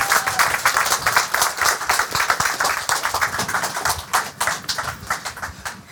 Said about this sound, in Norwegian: Og de forventer enda større applaus når de nå kommer opp på scenen. Kom igjen! Og høyere, da.